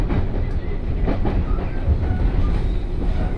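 Steady, loud rumble of a 117 series electric train, a local on the Kosei Line from Kyoto toward Ono, rolling along the rails, with rhythmic wheel clicks over the joints and a continuous low drone, with no voices.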